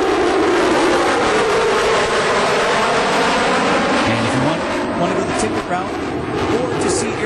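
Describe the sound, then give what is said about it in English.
A loud, steady fighter jet engine roar fills the whole stretch, a dense rumble with a whining tone, while muffled voices sit faintly beneath it. “riding in our fighter jet experiences.”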